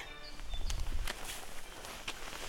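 A horse named Sardou walking away with its rider, its hooves landing in a few soft, irregular clops over a low outdoor rumble, fairly quiet and moving off.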